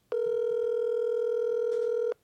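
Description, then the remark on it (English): A phone placing a call to a number: one steady electronic telephone tone sounds loud for about two seconds, then cuts off, with no talking. “I think this is the number. I'm going to call him now.”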